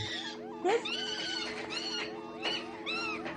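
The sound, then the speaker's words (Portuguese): A monkey cries out after being poked, in a series of shrill, wavering squeals and screeches, loud, repeating in bursts over a few seconds with no talking. “Coitado do macaco. Você que você ficar catucando macaco?”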